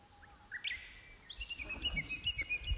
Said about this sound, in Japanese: これ聞こえますかねなんかただの鳥の声だけじゃなくていろんな種類の鳥の声が聞こえて めっちゃ、ね、な鶏も鳴いてるんですけどいやなんか本当にいろんな動物が動物の声だったりとか木の揺れる音だったりとか虫の飛んでる音とかなんか本当にいろんな音が聞こえてきて